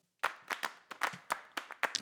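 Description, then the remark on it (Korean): Sharp hand claps in a quick, slightly uneven rhythm, about eight or nine crisp strikes over two seconds, bright and percussive with nothing else playing, opening a Spanish song. “일단 스페인 음악이면 박수로 시작해야죠.”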